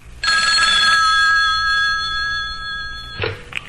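A telephone bell rings in one sustained, bright metallic trill that fades over a few seconds, followed by a brief clatter like the receiver being picked up. No one speaks.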